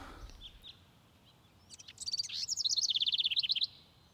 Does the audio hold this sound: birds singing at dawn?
yes